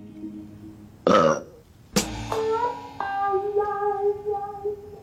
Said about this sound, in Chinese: 我打嗝 了。这要是开个吃播账号，肯定分分钟粉丝破百万。